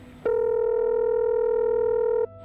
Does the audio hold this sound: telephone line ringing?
yes